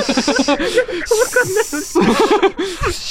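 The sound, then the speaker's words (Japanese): A voice imitates a hissing, steam-like "pshh" sound, breathy and close, blending noisy hiss bursts with voiced, mumbling tones over about three seconds. “プシューとか言ってしまった。”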